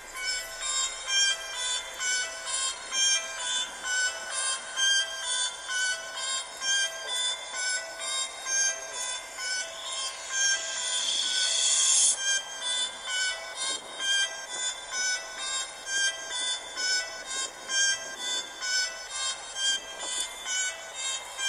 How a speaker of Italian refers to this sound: Ok ragazzi, questo era il beat in anteprima la canzone potrebbe uscire tra due mesi oppure anche domani, è una sorpresa.